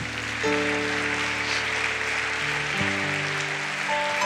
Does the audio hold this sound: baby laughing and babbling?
no